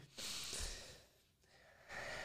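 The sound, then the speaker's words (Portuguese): A deep, noisy breath drawn in through the nose, followed by a softer pause and a second airy rush of breath near the end; no talking. “E eu respiro, nossa, como tudo fica melhor.”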